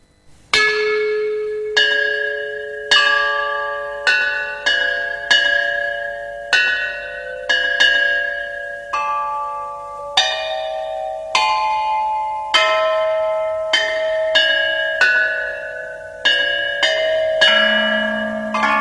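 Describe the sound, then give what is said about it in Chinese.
The original Marquis Yi of Zeng bronze chime bells play a slow melody, in a 1986 recording by China Record Corporation and Hubei Provincial Museum. Each struck note rings with a bright, metallic attack and a long, shimmering decay, the strikes coming in an unhurried rhythm with some lower tones beneath. No voices. “它可是由真正的编钟发出的声音，请大家欣赏。”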